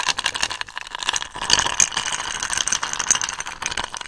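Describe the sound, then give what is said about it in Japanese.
Ice cubes clink and rattle against a cheap glass, one that came with a bottle of gin, while a gin and tonic is being made; a rapid, irregular clatter that continues throughout, fairly loud, with no one speaking. “このね、氷の音ね、氷の音は、あの、氷だけの音じゃない、ないわけですよね。グラスの音でもあるじゃない。”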